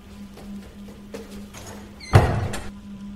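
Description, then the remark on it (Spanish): A bedroom door swings shut with a solid thump, preceded by faint shuffling and a low steady hum in the background. No one speaks. “Di un paso atrás y en cuanto cerré la puerta del cuarto detrás de mí”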